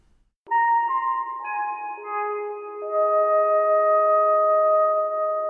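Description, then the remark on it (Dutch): A short synthesized melody of five clean electronic tones, the musical pattern aliens use to communicate with humans, each note entering in turn and sustaining so they ring together into a steady chord, loud with no voices. “dit muziekpatroon te creëren. Want je kunt hier honderden verschillende combinaties van maken. Dus vandaar dat de aliens het uitkiezen om met de mensen te communiceren”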